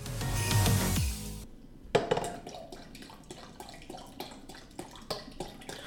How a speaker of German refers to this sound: Apfelsaft in einen Messbecher, Messbecher füllen. Und leider spritzt das Ganze ein bisschen. Ups.